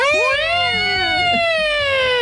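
A loud, buzzy bumper car rink alarm siren, one sustained harsh tone drifting slowly lower in pitch for about two seconds, with no one talking.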